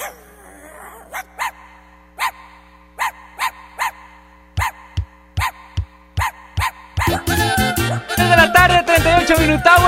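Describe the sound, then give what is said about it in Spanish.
A small dog yaps loudly in a steady, rhythmic series of about a dozen sharp, high barks, before a dense, busy layer of sound swells up underneath for the last couple of seconds. “Si al ritmo del perrito sonando aquí con Lili Marroquín y Chama Gámez”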